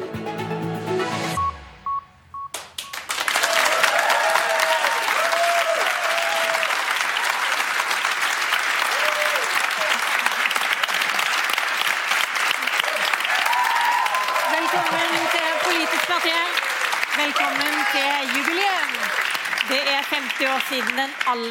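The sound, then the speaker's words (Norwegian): A short electronic tone sequence gives way to loud, sustained applause from a live audience at Ingensteds in central Oslo for the show Politisk kvarter, a dense, steady wash of clapping with occasional whistles and cheers, continuing for about twenty seconds. “Og Da vil vi ha kjærlighet og applaus, og derfor åpne dørene her på Ingensteds i Oslo sentrum.”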